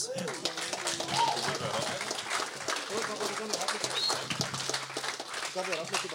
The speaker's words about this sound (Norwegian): Stor applaus.